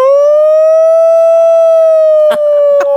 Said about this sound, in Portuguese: Pronto. Bateu o sinal do recreio. Que foi isso?